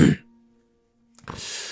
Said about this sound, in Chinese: 吴教授清了清嗓子，随后说